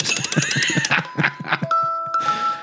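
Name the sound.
christmas bells ringing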